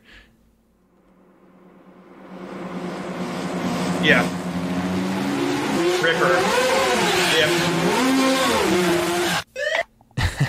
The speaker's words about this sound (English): his soundtrack is just this fucking crazy wall of noise that I love